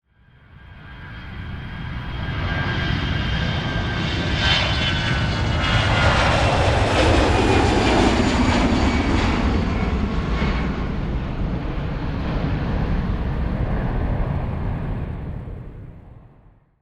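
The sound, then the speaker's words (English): A small airplane with two people on board lands on a lake: its engine drones steadily and fairly loud, swelling in as it approaches, holding a broad rumbling roar for several seconds, then fading away; no voices. “An onlooker actually captured the video of the plane landing in the lake.”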